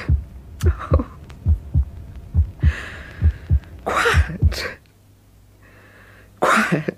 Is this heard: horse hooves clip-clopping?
no